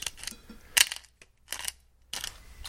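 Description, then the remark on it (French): A pepper mill grinds black pepper over haddock dressed with olive oil in four or five short, gritty, crackling bursts with brief pauses between twists, the scratchy crunch fairly bright and moderately loud, with no one speaking. “J'en mets un peu. Oui, parce que j'adore le poivre en plus.”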